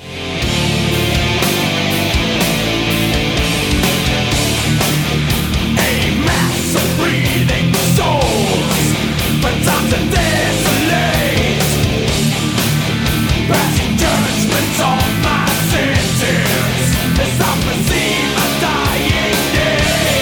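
Loud, dense heavy metal plays throughout, with a chugging distorted guitar riff driven by steady, pounding drums and crashing cymbals, sustained at full volume from start to finish.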